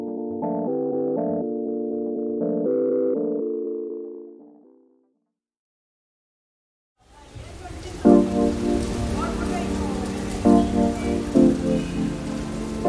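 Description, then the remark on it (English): A brief melodic jingle fades to silence, then torrential monsoon rain in Mumbai, India, bursts in, a loud, dense, steady downpour hissing, with faint tonal murmurs beneath it. “The city of Mumbai, like much of the rest of India, has been suffering torrential monsoon rains.”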